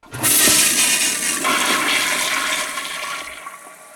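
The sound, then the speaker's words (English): A loud toilet flush roars up suddenly, a broad rushing swirl of water that holds steady for a few seconds, then gradually thins out as the tank drains, alone. “Pretty loud toilet.”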